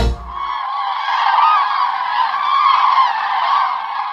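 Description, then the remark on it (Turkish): A dense chorus of loud, honking calls from many common cranes at once, large long-legged birds about 1.5 m tall with a 2.5 m wingspan, continuous and overlapping for several seconds, with no voices. “Turnalarda üremek için önümüzdeki günlerde göçe başlayacak uzun bacaklı, iri bir kuş olan turnanın boyunun bir buçuk metre, kanat açıklığının iki buçuk metre olduğunu biliyor musunuz?”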